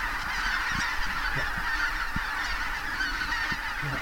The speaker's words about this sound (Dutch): En we zien nu dus, eh, nou wat zal het zijn, nog een, uh, een vijftigtaal, zestigtaal ganzen. En de rest zit nu in de lucht of is al vertrokken met nou, groot, groot lawaai ook, veel trompetten.